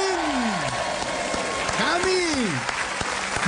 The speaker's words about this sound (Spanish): Recibimos con un fuerte aplauso